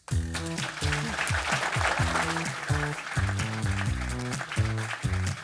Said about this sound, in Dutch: Geef haar een applaus.